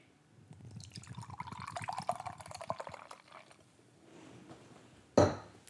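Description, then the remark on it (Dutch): Cold beer glugs and splashes steadily into a nice beer glass for about three seconds, its pitch rising as the glass fills, then a quiet pause and a sharp clunk at the end. “Dus ga ik hem nu even openmaken. Nou, dan hoor je. Ik schenk hem even in.”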